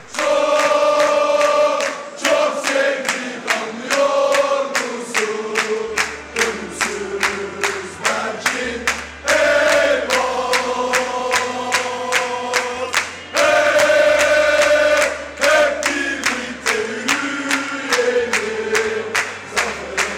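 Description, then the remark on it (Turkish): Children chant a song together in stadium stands, a loud, continuous rhythmic singalong with steady pulsing beats and a low droning undertone that fills the whole stretch without pause. “Yetmeyenler için yine tribündeki çocukların bağırdığı besteyi de koyalım.”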